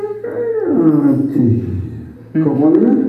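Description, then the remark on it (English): A voice telling a story imitates the sound of the sun setting with a long, loud, wavering tone that slides steadily downward, followed by a shorter second cry, voicing a man crying, that swoops up and then falls again. “That's the sound of the sun setting, by the way.”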